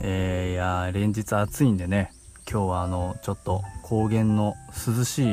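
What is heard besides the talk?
cicadas buzzing outdoors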